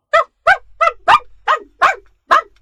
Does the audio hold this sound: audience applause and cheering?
no